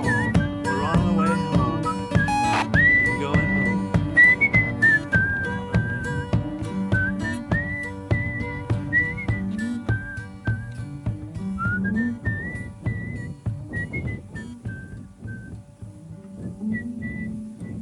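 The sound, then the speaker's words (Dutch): A person whistles a clear, wavering melody in sustained high notes as the ending of a song, over a full band backing with steady drums and bass, the whistled line prominent throughout. “En nou ja, iedereen kent dit fluitende einde”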